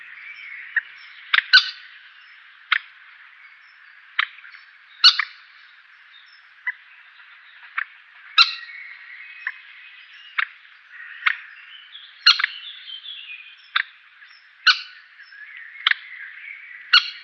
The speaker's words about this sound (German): Das Teichhuhn, Bild Nummer 3.